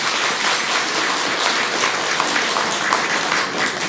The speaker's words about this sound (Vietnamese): các chàng vỗ tay giòn giả cho thấy một tín hiệu tín hiệu đáng mừng là các quý phật tử sẽ ủng hộ nó